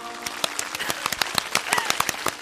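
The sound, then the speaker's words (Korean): A crowd of wedding guests applauding the bride and groom's march at the end of a wedding ceremony, a dense patter of many hands clapping at once, steady throughout with no voices. “신랑 신부 행진에 큰 박수 부탁드립니다.”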